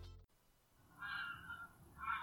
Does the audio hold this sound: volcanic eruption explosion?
no